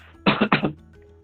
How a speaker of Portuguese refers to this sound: Peraí, gente, pigarro.